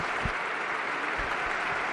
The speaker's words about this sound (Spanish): rompe Mestalla en aplausos. El público se emociona y los jugadores respetuosamente acompañan este gesto y este tributo Hugo emotivo que el Valencia está haciendo por la gente de su tierra.